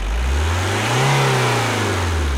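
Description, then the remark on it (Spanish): A car engine revs up, its low drone rising in pitch to a peak and then easing back down, loud, with no voices over it. “Es que si te asocias a Sintepa, te asocias también con tu primer auto.”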